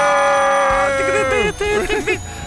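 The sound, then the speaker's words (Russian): A winner sound effect: a loud, bright electronic tone holds steady, then breaks into quick warbling rises and falls, lasting a couple of seconds. “А вот звук звук победителя.”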